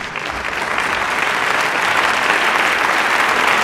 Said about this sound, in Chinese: 哦，精彩的掌声鼓励，哎，真的很厉害哎